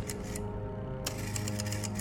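Someone taps out a very long number on a telephone keypad, a quick, steady string of sharp clicks, with a low hum running underneath and a short pause partway through.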